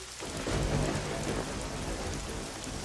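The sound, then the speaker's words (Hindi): Heavy rain pours down steadily, a dense, continuous hiss and patter that stays loud throughout, with a faint low rumble underneath and no voices; the downpour comes with loud thundering clouds and stops after about half an hour. “करीब आधे घंटे के बाद पानी रुकता है”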